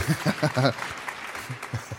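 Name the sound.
audience clapping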